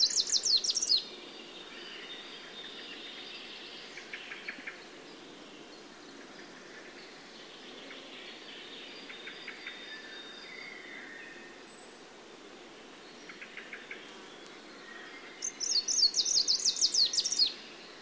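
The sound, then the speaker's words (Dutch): A bird sings in bright, high chirping phrases, with loud rapid bursts at the start and end and softer, scattered trills in between over a faint steady background hiss. “Maar deze vogel is gezien in het Belgische vasteland.”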